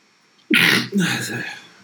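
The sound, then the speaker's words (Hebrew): A single sudden sneeze bursts out, a sharp breathy explosion followed by a longer noisy release that trails off, with nothing else around it. “לבריאות, תודה. תודה רבה.”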